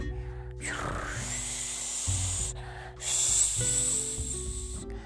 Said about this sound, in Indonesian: Suatu ketika hujan datang. Biur, biur, biur, der, Oh tidak, hujan datang